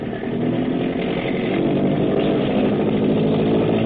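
A patrol boat's engine roars steadily at high revs as the boat is opened up at nightfall in deep water, a loud, rough, sustained mechanical drone with a slight rise in intensity after the first half second, and no voices.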